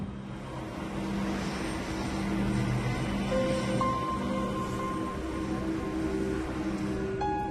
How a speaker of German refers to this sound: Flughafen München. Jetzt rollt da hinten eine an. Und das ist so eine kleine, genau.